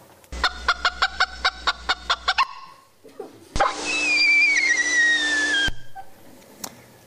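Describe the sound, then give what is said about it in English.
Bird predator alarm calls: a rapid run of about nine sharp, harmonic clucking notes, then after a short pause a longer, high-pitched whistle that slides downward over a rough, hissing noise. “Um, a few years after this, the, the Vervet work was published in Science in 1980 and Animal Behavior in 1993, we had um, an avian uh, example.”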